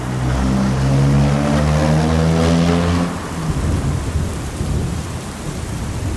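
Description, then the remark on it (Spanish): A deep, droning rumble of thunder rolls through the first half, then gives way to a steady, dense hiss of heavy rain pouring down, with no voices. “La lluvia me detuvo un buen rato, pero llegué.”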